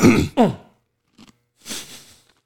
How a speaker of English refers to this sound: I got some of the cheese powder down in my throat. And you coughed on it.